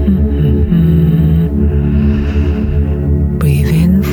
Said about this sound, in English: softly through your nose and feel that you have some space here in your throat like you are humming.